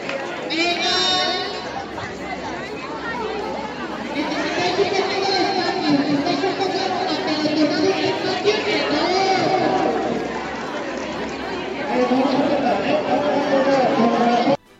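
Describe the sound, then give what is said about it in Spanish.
A dense, steady murmur of many voices chattering at once from a large crowd gathered outdoors at a school event, with occasional louder shouts rising out of the din. “¿Cuál es el ambiente ahí fuera? Incluso lo oímos desde el estudio.”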